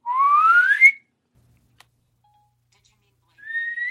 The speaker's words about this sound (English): Put a whistle sound when I say who I'm calling.